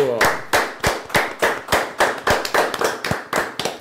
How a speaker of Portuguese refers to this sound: Uma salva de palmas.